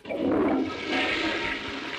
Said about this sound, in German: eine Klospülung